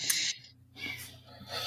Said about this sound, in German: Gesundheit, das war die Katze gerade im Hintergrund, die gerade niest.